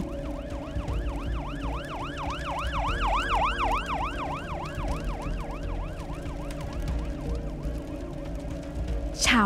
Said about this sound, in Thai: เสียงรถดับเพลิงกับรถพยาบาลดังสนั่น ท่ามกลางเสียงคนมากมาย